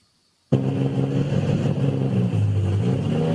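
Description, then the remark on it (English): After a brief silence, the engine of a tractor that was plowing fields 30 years ago suddenly roars to life and revs loudly, its deep, throbbing rumble holding steady with slight rises in pitch. “30 years ago, that tractor there was plowing fields. Today, its purpose is much different.”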